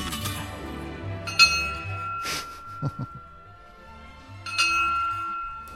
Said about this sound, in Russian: Два сигнала, значит, второй час эфира пошел.